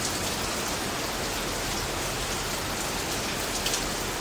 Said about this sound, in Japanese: ちょっと移動しようと思ってたんですけどまさかのめちゃくちゃ雨降ってきて今家の下の駐車場にいるんですけど動けない